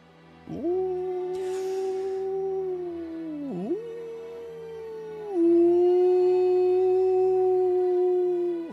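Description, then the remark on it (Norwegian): A chorus of wolves howls far away, barely audible, in long, sustained, steady tones that dip briefly midway, then swell slightly louder and carry on to the end, with no talking. “Flere ulvestemmer som samler seg opp mot hverandre.”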